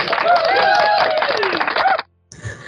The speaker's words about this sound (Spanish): Aplausos.